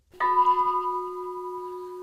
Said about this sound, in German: Unsere Glocke.